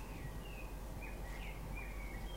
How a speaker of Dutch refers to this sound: Hoort de Merel zingen trouwens?